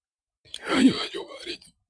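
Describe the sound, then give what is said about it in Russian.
A single strained, breathy vocal sound lasting about a second as someone tries to speak while inhaling, fairly loud, with no clear words. “Все, все пытаются да, проверить.”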